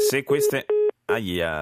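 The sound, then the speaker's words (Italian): A brief, steady electronic telephone tone sounds once after a phone call drops and the line is lost, cutting off between stretches of a man talking, followed by a short silence. “abbiamo perso la linea, è caduta la telefonata, vediamo di recuperarla velocemente.”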